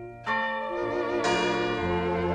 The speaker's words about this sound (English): In fact, ringing church bells are often part of the New Year's celebration, along with counting down the last 10 seconds before midnight and making lots of noise.